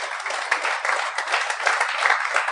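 Steady applause from the audience at a live show for the man filming it, a dense wash of many hands clapping at once, sustained evenly at moderate loudness with no voices over it.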